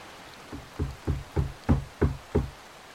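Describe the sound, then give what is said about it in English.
Six firm knocks on a door by a man knocking a second time, louder, struck in a steady, evenly spaced rhythm, each a heavy thud with a sharp edge, fairly loud against a quiet background. “He knocked again, louder this time.”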